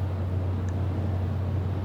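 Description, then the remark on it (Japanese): A steady low rumble of passing road traffic fills the background, a constant engine-like drone with no voices, picked up from outside by a microphone being tested before a recording. “じゃあ始めてよろしいですか車の音拾っちゃう、はい、これだと。”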